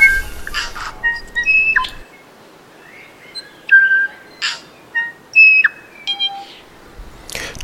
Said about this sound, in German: Und hat sich dann immer so schön auf irgendwelche Emporen gesetzt, gerne auf so auf den allerhöchsten Ast eines Baumes und dann seinen herrlichen Gesang scheppern lassen.